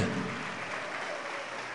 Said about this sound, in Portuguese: Está chegando mais, vamos aplaudir mais, está chegando mais, olha só. Vamos aplaudir, igreja, vamos aplaudir.